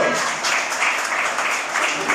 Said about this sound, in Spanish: denle el aplauso si se lo va a dar al Señor, por favor.